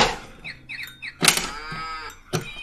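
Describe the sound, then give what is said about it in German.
A plastic toy farmhouse, with buttons underneath that open doors to bring out a farmer, horse, cow or dog, plays a tinny electronic cow moo, with a few short chirpy tones first and a couple of clicks and clacks from the toy. “so ein Plastikbauernhaus, ja, wo du so unten auf so Knöpfe drücken kannst und dann gehen so Türen auf und dann kommt halt der Bauer raus, ja, oder das Pferd oder die Kuh oder der Hund”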